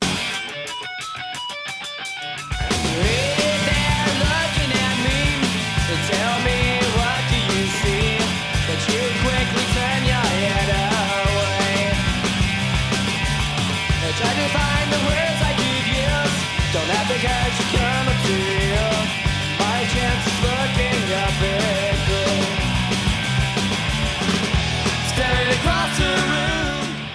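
A loud, raw punk rock song with driving distorted guitars, pounding drums and shouted vocals, starting after a brief burst of noise and playing steadily throughout.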